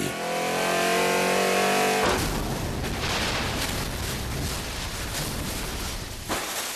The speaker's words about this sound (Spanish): sus cuatro amigos se suben a su auto de lujo. Raimundo acelera a 180 kilómetros por hora y.